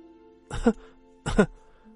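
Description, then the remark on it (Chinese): Two short, deliberate coughs, voiced and somewhat throaty, evenly spaced about three-quarters of a second apart, with quiet pauses around them and no talking, as if someone were faking the coughs. “但是，为了骗得小王子真相信他弱不禁风，他故意咳嗽了两三声，又提出了要求：”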